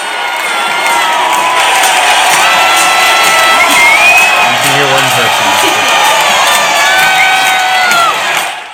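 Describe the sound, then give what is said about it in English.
A huge crowd, some 76,000 people out on the streets, roars and cheers for the home run that won the game, a loud sustained wall of shouting and whooping that holds steady for several seconds before fading at the end. “And then here, I, I think this is the home run that won the game for everybody.”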